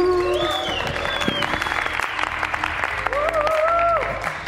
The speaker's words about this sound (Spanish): ¿Cómo están? Aplauso, aplauso.